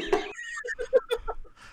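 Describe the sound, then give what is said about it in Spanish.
A pet duck quacks, a quick string of about six short, nasal calls following a brief louder burst, with no talking. “el, pato y el gatito son mis mascotas.”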